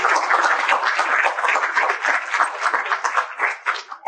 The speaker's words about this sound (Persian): بچه های تیممون امروز توی این سالان هستن دوستان تشویقش مرسی